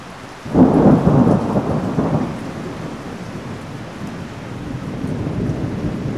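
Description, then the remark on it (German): A deep rumble of thunder rolls in suddenly and loud, then fades into the steady hiss of heavy rain that continues throughout, with no voices. “Nicht nur Hitzewellen, sondern auch Stürme und Starkregen.”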